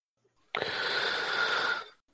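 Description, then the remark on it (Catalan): One long, loud breath drawn in sharply, a rushing, airy inhale lasting over a second before tapering off, with no talking. “La respiració, eh? Sí, ha agafat aire.”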